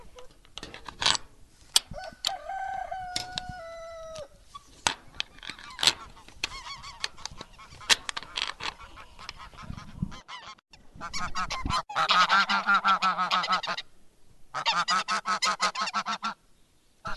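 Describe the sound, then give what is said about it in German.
Geese honk loudly and repeatedly, a noisy chorus of overlapping calls with harsh bursts, building into a dense, continuous cackling toward the end. “Jetzt habt ihr gerade Gänse gehört.”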